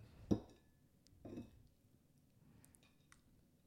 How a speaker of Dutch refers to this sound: hoor je me lekker smakken. Nou, nou. Nou, is wel goed hoor.